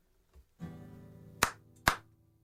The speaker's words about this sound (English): I have a weird question. Okay. Um, can you clap a couple of times?